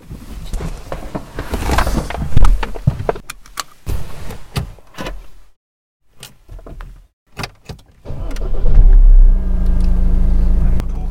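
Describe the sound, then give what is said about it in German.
Clicks and clunks of a car door being opened, with sharp latch transients, a brief quiet gap, then a steady engine-like rumble taking over near the end. “Abrimos la puerta del coche.”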